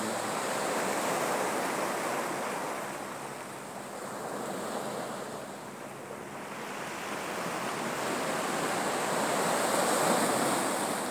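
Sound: ocean waves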